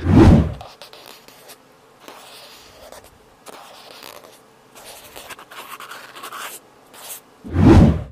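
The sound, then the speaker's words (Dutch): Soft, irregular scratching and rubbing of cotton swabs and hands across a microphone for an ear massage, with quiet gaps between strokes and two louder bursts of rubbing at the start and end. “Dat doet ze met haar handen en met de uh, wattenstaafjes aan haar microfoon.”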